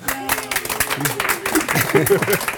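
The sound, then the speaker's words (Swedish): Steady audience applause at a talk about digital tools and openness, where the Årstaskolan school is mentioned, a dense crackle of many hands clapping at moderate volume, with voices and murmuring mixed in underneath throughout. “han eh, sjunker ihop här lite när alla applåderar.”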